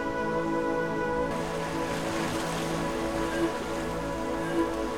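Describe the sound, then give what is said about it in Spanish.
Steady ocean surf washes continuously against the shore, a soft, constant rush of breaking waves with a faint sustained tonal drone beneath it and no voices. “Las gaviotas pasan volando, las olas rompen salpican.”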